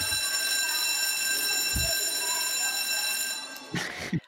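school bell ringing

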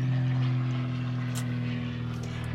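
low-flying airplane passing overhead

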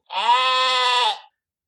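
sheep bleating sound effect

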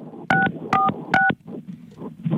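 phone keypad dialing tones

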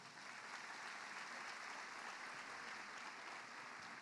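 audience applause

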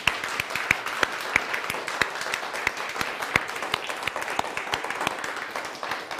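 audience applauding loudly

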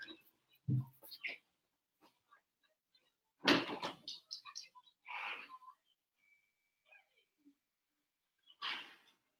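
door opening and closing

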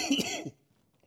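coughing

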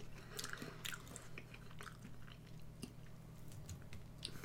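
chewing a crunchy snack

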